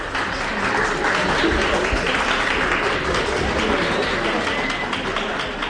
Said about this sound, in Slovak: Mladí burlivým potleskom privítali Mariana Chovanca, banskobistrického oca biskupa.